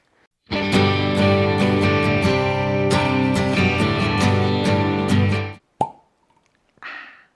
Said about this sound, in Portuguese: Então vamos abrir e degustar. Então vamos abrir na nossa queridiza aqui, nosso vinho lá linda Malbec.